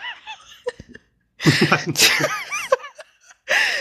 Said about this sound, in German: es war halt niesen gefolgt mit direktem Lachen